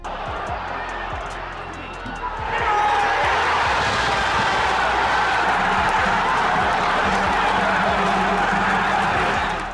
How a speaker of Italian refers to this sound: Se c'è una cosa che differenzia i Lions da tutte le squadre londinesi è il suo urlo al momento del gol della propria squadra. Un urlo spaventoso spaventoso che frastorna gli avversari, come in pochi sanno fare. Si chiama L'Urlo dei Leoni.